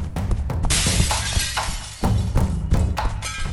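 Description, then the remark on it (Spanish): Loud glass shattering, a burst of breaking panes followed by repeated crashes and tinkling shards scattering over several seconds, with heavy thuds underneath and no voices. “Detrás de sí, dejó una estela de ruido y vidrios rotos”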